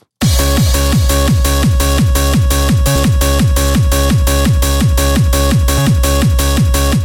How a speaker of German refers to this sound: Hey, das klingt so ein bisschen wie so, wie so ein Eurodance-Kram. Hui!